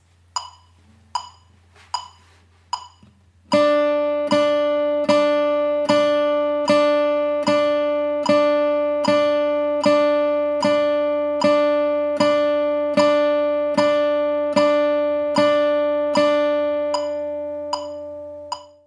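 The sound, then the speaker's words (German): Four sharp clicks count in, then an electric guitar chord is struck in a steady, even rhythm, played very accurately on the beat, each hit landing right on a ticking click and ringing until the next. No one speaks. “So, jetzt habe ich die Gitarre hier bei mir und jetzt werde ich dir erstmal zeigen, wie man wirklich ganz akkurat auf dem Beat spielt.”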